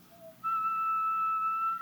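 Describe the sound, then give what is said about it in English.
A steady, pure whistling tone from a blown corrugated tube, one of four interlocked tubes whose pitch is controlled by blowing softer or harder, starting after a brief faint higher note and holding one pitch with a quieter overtone for over a second, clear. “corrugated tubes, and I control the pitch by blowing softer or harder or faster or slower in effect”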